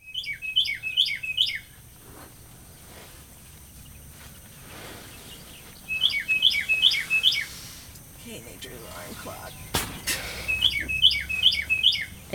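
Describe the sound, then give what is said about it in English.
Birds chirping in three bright bursts, each a quick run of four or five high, sharp notes, separated by pauses filled with a soft, low ambient hum. “Good night, birds.”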